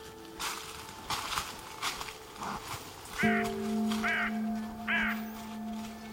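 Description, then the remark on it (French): Crows caw repeatedly with harsh, raspy calls, several shorter ones at first and then three louder, evenly spaced caws over a steady low hum. No one speaks. “Vous l'avez compris à travers tous ces exemples, les corbeaux ont une vie sociale riche.”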